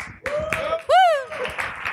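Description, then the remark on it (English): An audience at a forum applauds to welcome the mediator of the fourth panel, a dense, steady patter of clapping, and a rising-then-falling whoop or whistle cuts through briefly in the middle before the clapping carries on. “Applause.”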